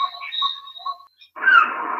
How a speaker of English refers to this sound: You turned your tiki bar back on. You can hear the, the birds chirping.